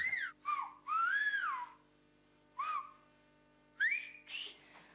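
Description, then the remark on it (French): A message in the Béarnais whistled language: a series of loud, piercing whistles with gliding, rising and falling pitch contours, delivered in several separate bursts with short pauses between them, no talking. “Pour autant, la langue sifflée fait partie du patrimoine béarnais.”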